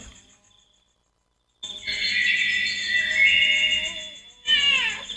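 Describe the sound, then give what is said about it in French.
After a moment of silence, a children's sound book, triggered by pressing a button with a finger, plays a cat meow through a tiny tinny speaker: a sustained buzzy, bright tone, then a short falling cry at the end. “ça s'écoute et ça se s'use à, coup coups de pastilles sur les doigts”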